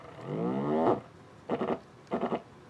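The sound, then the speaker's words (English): A haptic vibration motor connected to a controller buzzes and ramps up, its hum climbing steadily in pitch for about a second, followed by two short, pulsing bursts of buzzing with no talking. “And here's the ramp up.”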